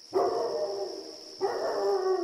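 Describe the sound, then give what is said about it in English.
In November 1974, a dog howls somewhere in the neighborhood in two long, drawn-out wails, the second following right after the first, with a thin steady high-pitched whine running underneath throughout. “A dog is howling somewhere in the neighborhood.”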